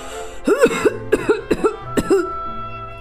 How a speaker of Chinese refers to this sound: 是的，我出去了，爷爷。可是我听见你在咳嗽呀。